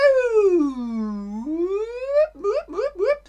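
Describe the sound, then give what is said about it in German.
A voice imitates an American emergency siren: one long, loud wail that slides down and climbs back up, then a burst of three or four quick, rising yelps. “Die Sirene heute ist natürlich anders.”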